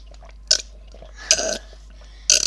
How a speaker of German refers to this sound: Ah, die schmeckt wie... Wie Ingwer, oder? Nö. Trink ich doch mal ins Mikro rein.